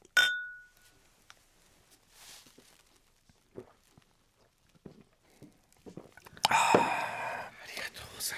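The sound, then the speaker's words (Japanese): Glasses of Yebisu Premium White beer clink once in a toast, a bright ring that fades over about a second, followed by quiet sipping and soft rustles, then loud breathy sounds near the end. “では恵比寿プレミアムホワイトで乾杯乾杯”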